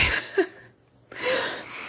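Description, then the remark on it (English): A voice imitates a woman's excited gasp on spotting sweet treats in magazines: two sharp, breathy intakes of air, fairly loud, separated by a brief silence, with no words spoken. “it's always that little gasp.”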